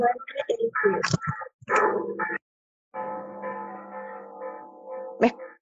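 Church bells ring with steady, humming tones that hang in the air, preceded by a few muffled, choppy sounds and ending with a sharp click.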